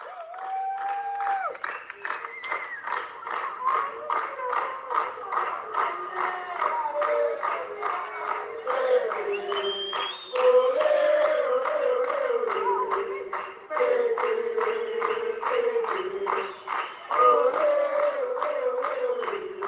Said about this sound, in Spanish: Al volver a la, Villa Argentina fue aplaudida y recibida de esta manera con toda la emoción que eso genera.